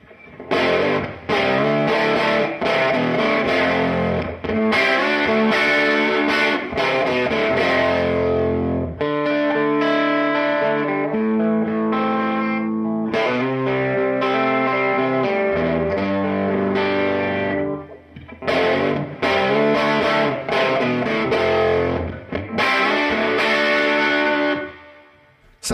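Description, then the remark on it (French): An electric guitar plays through a tweed amp with a little reverb added: crunchy riffs with choppy strummed chords, then sustained ringing notes in the middle, returning to the driven riff, loud with no talking. “Je mets une petite réverb, on va voir ce que ça dit avec, euh, avec ça.”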